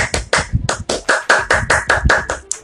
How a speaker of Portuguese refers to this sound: Pois é, pela primeira vez neste podcast, eu tô com o roteiro e eu sozinho batendo palma foi um pouco constrangedor, mas se você cá batendo palma, muito obrigado por ter passado essa vergonha comigo, né?